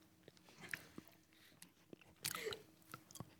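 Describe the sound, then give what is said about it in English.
Crunchy chewing, irregular bites and crackly crunches of a dry biscuit, with wet mouth clicks between them and no talking. “I've got a fucking biscuit in my mouth too”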